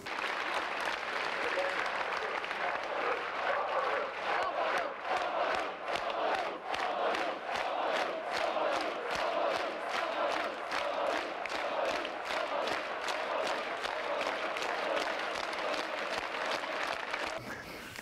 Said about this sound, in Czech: Takže už na tom Albertově, někdy v ty tři hodiny, kdy ta demonstrace začínala, se toho 17. listopadu v ten pátek začaly ozývat různé Eh, různé skandování a výkřiky, které eh, požadovaly demokratizaci společnosti.